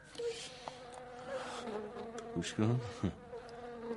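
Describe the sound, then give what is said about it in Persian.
A pest insect buzzes steadily, trapped inside a glass jar, a continuous drone with a few louder bumps and flutters near the end, while a voice speaks briefly over it. “گوش کن داره وزوز میکنه چقدر سنگ دلیت حشرات موزی رو باید کشت ببر شیشه رو بنداز دور نمیتونم تحمل کنم”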